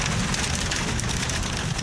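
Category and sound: nature, heavy rain falling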